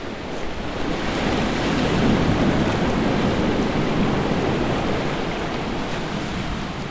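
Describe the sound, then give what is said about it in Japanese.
Waves wash and break steadily against a rocky stretch of shoreline beside a seaside walking path, with deep blue, clear water, a loud, continuous roar of surf with a slight rise and fall, with some wind noise and no voices. “いや海真っ青ですねすごく綺麗で水も透き通ってます水平線が遠く向こうに一直線に広がってますもうちょうどここ岩場になってるので波音がとっても耳に心地いいですね”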